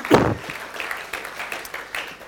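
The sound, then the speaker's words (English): An audience breaks into applause for a team of young people, starting with a louder burst and settling into a steady patter of many scattered claps at a moderate level, with no talking over it. “I think they need a clap too. Why don't we do that?”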